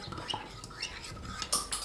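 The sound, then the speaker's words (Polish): A spoon scrapes and clinks against a bowl in quick, irregular strokes, fairly quiet, with a couple of sharper taps near the end, as a previously prepared sauce is stirred before being poured into a pot. “I na sam koniec pozwolę sobie tutaj przygotowany wcześniej sos przemieszać jeszcze”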